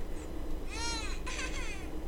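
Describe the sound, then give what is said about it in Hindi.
A baby's wailing cry in the video game Baby in Yellow rises and falls in two short bursts, fairly loud, over a steady low background hum. “हाँ, रोना आता है रोना आता है ये किस चीज़ की आवाज़ें हो रही हैं”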